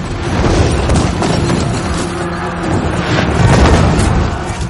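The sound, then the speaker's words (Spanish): Fireballs hurled from outside against the Alhambra fortress in Granada during a war: a dense, loud, continuous roar of low rumbling and booming impacts that swells slightly near the end, with no voices. “Desde el exterior lanzan bolas de fuego a la fortaleza.”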